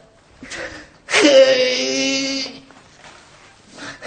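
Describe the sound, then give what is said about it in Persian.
A man lets out a single loud, drawn-out wail of grief lasting over a second, with softer breathy sobbing sounds before and after. “ز درد پسر موجه کرده پراب نشست به گریه و زاری”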